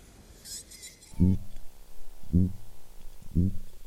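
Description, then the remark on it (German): Three low, throaty grunts from a piranha underwater, evenly spaced about a second apart, each short and booming against a faint hissing background. No one speaks. “Dieses Grunzen stammt von einer Piranha.”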